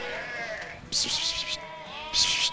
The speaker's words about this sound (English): Trying to move these sheep is a challenge. If you want them to go left, they'll go right, and any chance they get, they escape.